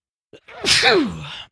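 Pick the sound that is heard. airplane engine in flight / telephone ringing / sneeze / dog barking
sneeze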